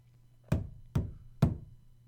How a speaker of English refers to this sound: Men with guns are at the door. They have been since you first heard the banging.